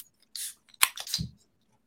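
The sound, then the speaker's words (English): A beer can cracks open: a short hiss, a sharp metallic snap, then a fizzing rush of escaping gas, over in about a second with no voices. “Cracking beers, clicking names.”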